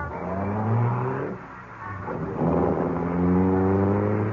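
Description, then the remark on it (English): A car engine revs loudly, dips for a moment, then roars up again and holds a strong, steady drone as the vehicle pulls away. “Now, get away from my car before I run you down.”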